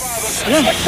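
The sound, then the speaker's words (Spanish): A short, steady hiss of air, like a puff from a respirator, lasting under a second with a faint voice-like murmur underneath. “Can I just get a toot off your respirator?”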